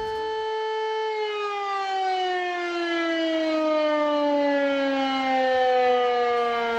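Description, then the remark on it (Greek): A police car siren wails in one long, steady tone that slowly glides downward in pitch over several seconds, loud, with no voices. “Νομίζεις άνοιξε η Louis Vuitton σούπερ μάρκετ παίρνει δυο αβοκάτο και σε συνοδεύουν περιπολικά στο σπίτι να μην σε κλέψουν στον δρόμο.”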